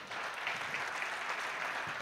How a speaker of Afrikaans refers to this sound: Dankie gee vir hulle lekker hande klap weer.